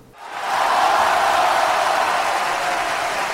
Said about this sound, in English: And cheer is to shout for joy or to encourage a team or someone you're watching. So it's very common in sporting events that the fans will cheer for their team.